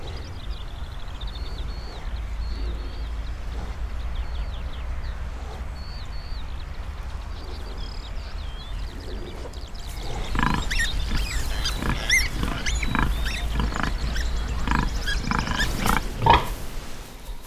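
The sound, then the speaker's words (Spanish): Farm animal sounds in a barnyard setting: light bird chirps over a low steady hum, then about halfway through, louder animal calls and snuffling noises burst in repeatedly, no one talking. “tengo la sensación de estar en una granja.”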